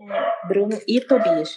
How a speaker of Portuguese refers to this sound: Você tá ouvindo meus dogs latindo? Tô, tô ouvindo. Tu consegue tirar eles? Não sei, acho que não.